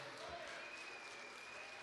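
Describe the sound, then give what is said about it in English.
A Pentecostal church audience stands and claps hands and shouts praise together, a dense, steady wash of clapping and raised voices that stays loud and unbroken throughout, with a faint high sustained tone running through it. “If you know him as your Savior, Give him the biggest shout of praise and hand clap of glory.”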